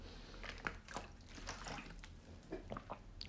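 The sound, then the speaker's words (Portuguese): Someone takes a sip of water, with a few soft slurps, swallows and wet liquid clicks spread over a few seconds, quiet and with no talking. “Biago água outra vez.”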